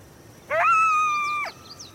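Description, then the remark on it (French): A single coyote howl in Canada, replying to a call: a clear, tonal wail rises quickly, holds steady for about a second, then drops off, with faint higher yips trailing afterward. “Il y en a un qui répond Il vous a entendu Fantastique Je crois qu'ils sont plusieurs.”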